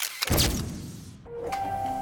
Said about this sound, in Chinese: 神奇相机。喷出带着牛奶味儿的云朵，然后吱吱吱地吐出照片儿。